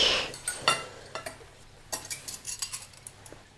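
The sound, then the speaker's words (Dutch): Cutlery clinks and scrapes against plates as satay is eaten at the table, a series of short, bright metallic taps, busier toward the end, with a faint low hum underneath and no one talking. “Oké, laten we dat satéetje eens proberen. Eet smakelijk.”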